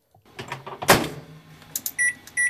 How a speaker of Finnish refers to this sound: Se on mikroaaltouuni ilman tuotemerkkiä tällä kertaa.